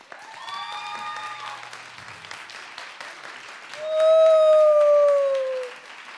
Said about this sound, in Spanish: Pero falta alguien, la persona más importante de esta noche, el público presente y los radioescuchas, así que un aplauso para ustedes, de ustedes.